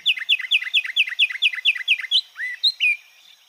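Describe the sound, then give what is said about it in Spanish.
A pinzón con rostro finch sings a quick trill of about ten bright, evenly spaced chirping notes, ending in a few slurred whistles. The song is clear, with no other sounds around it. Recording from the Colombian Bird Sound Bank compiled by the Humboldt Institute and Cornell University. “El trino del pinzón con rostro forma parte del Banco de Sonidos de Aves Colombianas recopilado por el Instituto von Humboldt y la Universidad de Cornell.”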